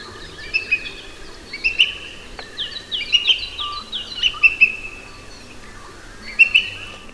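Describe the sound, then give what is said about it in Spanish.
A booted eagle's call rings out in short, high whistled bursts, repeated several times in loose clusters over a faint outdoor background, clear, with no talking. It is the species' typical call, heard when the birds arrive on migration. “este sería su canto, ¿no? Sí, él es de las calzadas el típico canto este que escuchamos cuando llegan de migración”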